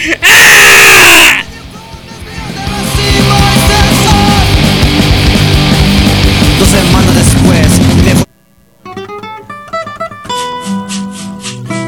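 The grito, played on the 15th on Radio Track, a hardcore radio station from Tijuana: a loud, sharp celebratory shouted yell bursts out at the start, followed by several seconds of dense, roaring noise like a crowd. It ends abruptly and gives way to music.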